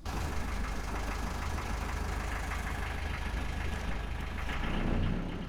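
A sailboat's engine, started at 3 pm for departure from the port of Martigues, France, on 12 December 2019, idles steadily, a continuous low chugging rumble with a faint knocking rhythm that holds even throughout, no voices present.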